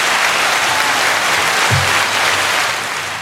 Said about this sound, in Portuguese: uma salva de palmas.